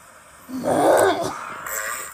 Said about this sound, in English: Sulcata tortoise stretching for carrot.